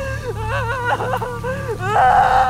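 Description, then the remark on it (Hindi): An eerie, wavering crying wail of a woman rises and falls in pitch over a low rumbling drone, swelling louder and more strained toward the end, coming from behind dense trees beside a road near a village. “सड़क के जिस ओर घने पेड़ थे आवाज वहीं पेड़ों के पीछे से आ रही थी रोने की आवाजें बढ़ रही थी”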